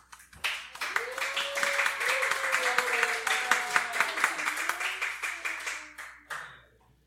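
A crowd applauds steadily for several seconds, dense overlapping claps with some cheering voices rising underneath, before the clapping thins out and fades near the end.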